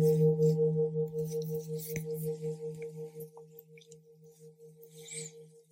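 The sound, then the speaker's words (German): A first gong rings out with a deep, sustained hum and a higher shimmering overtone, gently pulsing as it slowly fades over several seconds with no voices. “Beim ersten Gong speichere ich.”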